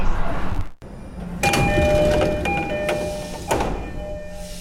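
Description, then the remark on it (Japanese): A Joban Line commuter train idles with a steady low rumble, then a burst of noise and ringing chime tones as its doors slide open at Futaba Station at 8:45, fading back to the hum. “常磐線の双葉駅に、えおりましたこの電車ちょうど今8時45分ですけれども、え降りたのは私1人だけです”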